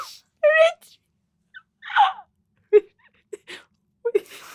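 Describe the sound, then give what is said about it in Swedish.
A person imitates a barking dog, producing several short, yelping vocal bursts spaced irregularly with brief silences between, some sounding whiny and strained. “Jag tänkte precis göra ett skällande ljud. Men jag ska inte göra det. Du gjorde det precis.”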